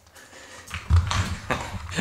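A dog sniffs and snuffles with a series of short, breathy bursts and soft rustling as it noses around a fabric snuffle mat with treats hidden in it. No one speaks.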